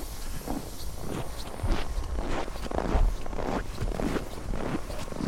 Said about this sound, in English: We just landed the helicopters. Come out and see what a bear has been eating on the sea ice here. Walking across the sea ice.